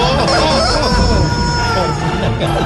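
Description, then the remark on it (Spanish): A rooster crows loudly and at length, its strained call tangled with a busy wash of overlapping voices and other noise, dense throughout. “Y, mira, cómo remata el gallo.”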